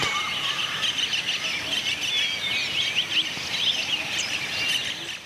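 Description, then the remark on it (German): Dense jungle ambience filled with many overlapping high bird chirps and trills, a continuous busy chorus at steady loudness over a soft hiss of background rustle. “Aber ist es komplett einerlei, ob es die Stille an einem Bergsee war die Geräusche in einem Urwald.”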